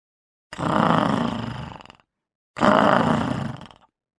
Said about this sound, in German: Das hört sich an wie ein unzufriedener Löwe.